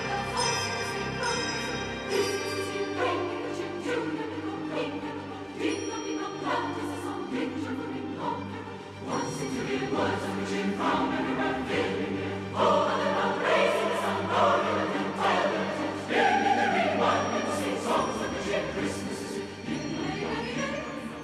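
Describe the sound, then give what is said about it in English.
A choral rendition of the Christmas carol Carol of the Bells, based on an old Russian or Ukrainian folk tune: layered voices singing a repeating, bell-like motif over sustained low tones, steady and full throughout, with bright chiming accents. “especially when you're talking about choral music as it uh, relates to uh, Christmas and the holiday season, I think of Carol of the Bells.”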